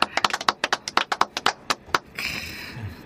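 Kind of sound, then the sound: crowd, applause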